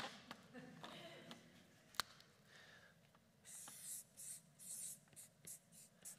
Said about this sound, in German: Ich möchte euch das mal aufmalen. Nehmen wir mal an, der Stift schreibt.